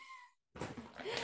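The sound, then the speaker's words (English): A corgi lets out a brief, high, whiny vocal cry that fades, then after a short pause comes a louder, rougher, breathy burst of sound. “oh sorry, that's the dog.”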